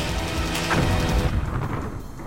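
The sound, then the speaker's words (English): Deep, rumbling explosions boom continuously in the air, with a sharper blast rising out of the low roar before the rumble slowly thins and fades. “this energy, this necromantic energy meeting this healing energy is coming together and creating explosions in the air that rain down top everybody you are passing.”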